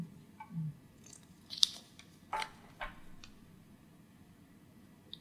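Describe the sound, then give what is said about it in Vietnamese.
Slips of paper with questions written on them rustle and crinkle as a hand rummages through a box to draw one at random, a few short crackly bursts scattered over a quiet background with no one talking. “chúng ta sẽ đến cái phần bốc thăm nhé trong này là những cái câu hỏi ấy và Annie sẽ bốc ngẫu nhiên một câu hỏi trong này”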